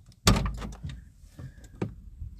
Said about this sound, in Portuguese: estou aqui a abrir a porta do carro.